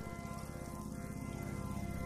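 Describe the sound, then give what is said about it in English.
Steady rain pours down outside, a dense, continuous patter of drops drumming on a surface at an even, fairly loud level with no voices. “It, it just will not quit raining here.”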